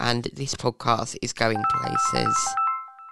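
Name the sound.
phone ringtone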